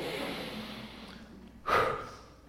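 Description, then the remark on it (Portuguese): A single big, forceful sniff, short and loud, following a few seconds of soft breathy background noise. No speech accompanies it. “ele deu três passos para trás deu uma fungada boa.”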